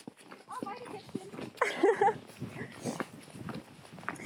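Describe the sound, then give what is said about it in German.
Pony hooves thud and clop unevenly on soft ground in a slow walking rhythm, while a person briefly speaks and laughs over the steps. “Unsere Pferde werden hier noch richtige Geländeponys.”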